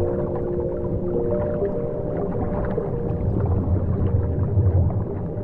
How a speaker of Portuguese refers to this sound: E o mar não é silencioso. O que se escuta são sons graves, interrompidos pelo barulho das bolhas que a gente solta.